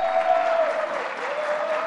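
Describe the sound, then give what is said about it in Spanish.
An audience applauds the team and everyone taking part in a radio programme, a dense wash of many hands clapping at an even, sustained loudness with no voices standing out, lasting about two seconds. “ha sido un día de muchos aplausos y los aplausos son energía, así que muchas gracias por los aplausos a todo el equipo y a todas las personas que han participado y que hacen este programa con nosotros.”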